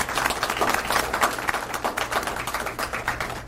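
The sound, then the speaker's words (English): A crowd at a law enforcement promotion ceremony applauds the officers' family members, with many hands clapping in a dense, continuous patter that holds at an even, moderate loudness throughout. No one speaks over it. “So I do want to applaud the family members who are here today.”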